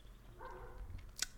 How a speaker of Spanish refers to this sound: Y de fondo, a lo lejos, hay un perro ladrando. No no vive conmigo ese perro, no puedo decirle que se calle, entonces les pido una disculpa por ese ruido.